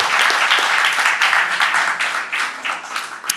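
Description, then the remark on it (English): A golf clap from several people: fast, dense hand claps that blend into a steady wash of applause, holding fairly loud for about three seconds with no talking over it. “Golf, go ahead, golf clap.”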